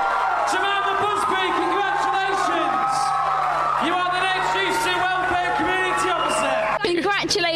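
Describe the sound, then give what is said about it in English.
A crowd cheers loudly and continuously as the winner of the Welfare and Community Officer election is announced, with whoops, shouts and clapping blending into a dense, sustained roar of excited voices that barely dips throughout. “a massive response for the crowd.”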